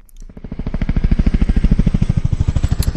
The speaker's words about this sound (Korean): 아, 헬리콥터 소리군요. 네, 바삐 날아가는 헬리콥터.